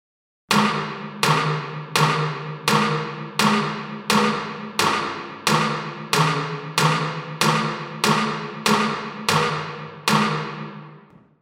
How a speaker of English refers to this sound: reverb, hall.